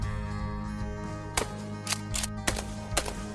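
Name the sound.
gunshots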